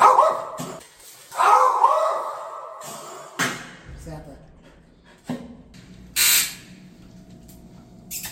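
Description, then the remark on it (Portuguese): A dog lets out several short, loud barks at irregular intervals, with a person talking in between and quieter whimpering or yipping in the gaps. “Mione, vem firme, mas o latido já parou”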